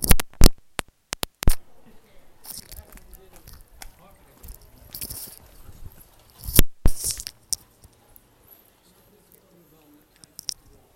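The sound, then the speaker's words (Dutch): A phone and its earbuds clatter onto a hard floor in a burst of sharp knocks, followed by scattered rustling and a few more loud bumps as they are handled. “alright, nu flikkerde mijn telefoon dus echt serieus op de grond.”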